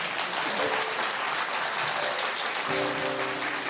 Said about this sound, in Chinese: 掌声，掌声欢迎！